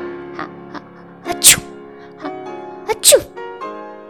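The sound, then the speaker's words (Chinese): In a narrated story, a voice imitates a little black lamb sneezing twice after rolling in a pile of flour on a farm: each time a rising, breathy buildup ends in a sharp, loud hissing burst, with a pause between the two sneezes. “他发现农场有一袋面粉，于是兴奋地推倒袋子，跑进面粉堆里打滚，还打起喷嚏来。”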